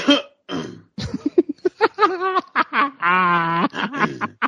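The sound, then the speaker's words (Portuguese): A couple of harsh coughs burst out, followed by a rapid string of raspy, throaty hacks and a drawn-out voiced wheeze, loud and with no talking. “Uma tosse remitente.”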